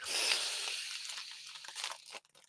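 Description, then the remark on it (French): Crackly crinkling of a plastic wrapper as orange licorice is taken out, a continuous rustle with bright crisp bursts that stops abruptly near the end, leaving a few faint ticks. “Ce qui me fait donc sortir pour la première fois la réglisse orange, mesdames et messieurs.”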